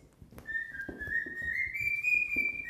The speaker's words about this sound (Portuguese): E meu passarinho tá começando a gritar. Deixa eu sair daqui antes que isso aqui vire um. vire um caos.